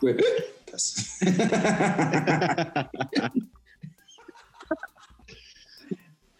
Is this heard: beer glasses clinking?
no